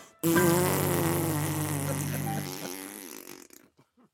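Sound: fart sound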